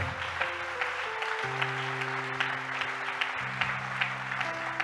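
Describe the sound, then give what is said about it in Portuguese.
Steady applause from a crowd for Jesus, a dense wash of clapping with irregular sharp claps poking out, while sustained low organ or keyboard chords play underneath and shift pitch a few times. “Você pode aplaudir bem forte a Jesus, hein?”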